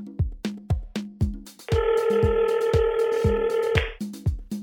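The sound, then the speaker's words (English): A telephone ringing: a bright electronic ring tone sounds for about two seconds over a steady, thumping beat that keeps going before and after it. No one speaks. “Oh, I think the phone is ringing.”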